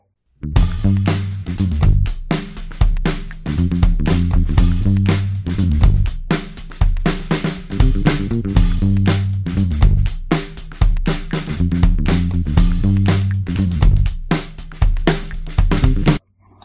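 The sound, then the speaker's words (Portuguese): A blender blends juice ingredients (lemon with its peel, ginger with its peel, blanched broccoli and half a glass of room-temperature water), running loudly and continuously for about sixteen seconds, its motor droning low while chunky ingredients rattle and churn in rapid, uneven bursts before it cuts off abruptly. “Nós vamos bater a mistura”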